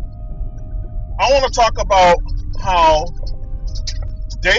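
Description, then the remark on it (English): Steady low rumble of a truck's engine and road noise from inside the cab while driving across town, constant throughout while a person talks over it. “Now, excuse the background noise, I am driving a truck.”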